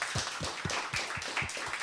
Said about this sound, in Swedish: Då kan vi bara ge Miss X en applåd för att hon ställde upp.